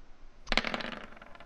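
Dice clatter and tumble in a small dice roller at the start of a pen-and-paper role-playing session. They begin suddenly with a quick run of bright rattling hits that gradually thin out and fade over about a second, with no voices.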